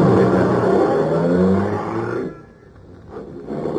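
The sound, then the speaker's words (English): A loud, throaty car engine roars and revs for a couple of seconds, then drops away quickly as the car takes off, leaving a lower rumble behind. “gripped the wheel harder, and we took off for Angelo's on Stoker Street.”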